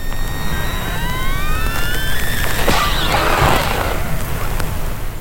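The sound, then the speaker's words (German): An underwater chorus of whale and seal calls mixed with wind, waves and rubbing sea ice: overlapping high whistles and sweeping trills drift over a constant low rumble and hiss, with scraping, grinding noises surging midway through. “In diesem Chor der Wale und Robben mischen sich auch noch die Geräusche von Wind und Wellen oder etwa von reibendem Meereis.”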